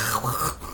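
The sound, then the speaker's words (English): A dog, Chunk, gives a brief, low, throaty grunt while rolling around, a rough groaning rumble lasting under a second that trails off into faint rustling. “That's the dog. I might keep that in just for reference of the weird ass noises this fucking dog makes.”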